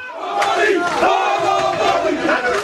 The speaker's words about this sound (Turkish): Güzelce toplantı devam ederken dışarıda da bazı sloganlar duyduk. Ama benzeri bir şeyi e, bir 10 gün 15 gün kadar önce BAF'ta da duymuştuk. E, gelir geçer dedik ama bu kez öyle değilmiş.